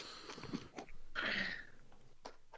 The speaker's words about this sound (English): We have no content, so you must chew directly into everyone's ear holes.